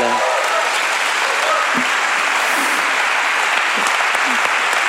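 Sustained audience applause, a dense, steady wash of many hands clapping at an even, fairly loud level throughout, with no voices standing out.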